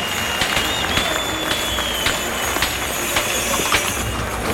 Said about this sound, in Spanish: Arrastran al toro y hay división de opiniones. Aunque yo creo que prevalecen los aplausos sobre los pitos.